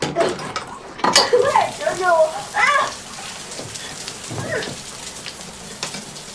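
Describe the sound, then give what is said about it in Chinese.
In a bathroom scene from a drama, a person holds a shower head and sprays water at another person in a steady, hissing rush throughout, with splashing bursts and brief, strained vocal cries and gasps breaking through over the spray. “这个桥段就是，呃，当七月发现安生原来是跟佳明在一起，他就把这个安生拽到了卫生间，然后拿着淋浴喷头去浇他，然后露出了其实非常残暴的那一面哈、魔鬼面具。”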